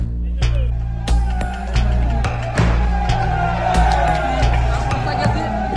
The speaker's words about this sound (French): Des pétards, des klaxons, des feux de palette et des tracteurs en travers des rues. À Bruxelles, le bâtiment où se tenait aujourd'hui le sommet des 27 s'est retrouvé au cœur de la manifestation du monde agricole.